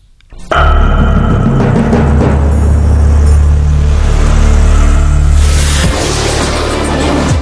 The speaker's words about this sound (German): Aber, aber gut, dann, dann würde ich jetzt hier den Abbinder reinsetzen. Ab geht's.